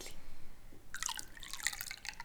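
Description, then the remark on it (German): Tea is poured into a cup: after a second of quiet, a steady gurgling splash of liquid with bright, rising tones as the cup fills. No one speaks. “Nimmst, gibst du mir noch ein bisschen Tee?”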